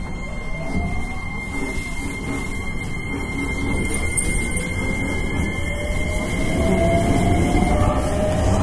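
A Hankyu 9300 series train running as a limited express on the Kyoto Line from Kawaramachi to Umeda, with a steady low rumble of wheels on track and a thin, sustained high squeal from the wheels and motor that rises slightly toward the end.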